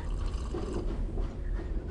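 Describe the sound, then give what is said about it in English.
A steady gurgle of Mariage Frères tea being poured and gulped down, a soft continuous liquid sound lasting a couple of seconds with no one speaking. “Ah, oh, this is liquid rejuvenation pouring right down my throat.”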